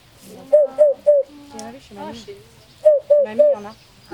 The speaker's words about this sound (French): Comme il a une huppe, on l'a appelé la huppe. Vous avez jamais entendu la huppe